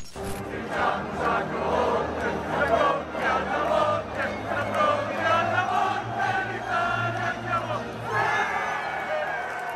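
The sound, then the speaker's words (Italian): A dense crowd of football fans in the stadium stands roars and shouts continuously, many voices blending into a loud, sustained wall of cheering with occasional louder swells. “Ovviamente i giocatori in campo sono 11 per ogni squadra, ma c'è il famoso dodicesimo uomo in campo che in realtà si trova sugli spalti e sono i tifosi.”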